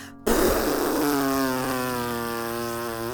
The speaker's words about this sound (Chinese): 大象医生都还来不及准备好，小丽啊就放了一个又长又大声的屁，让大象医生顿时往后一跌，砰的摔了一跤。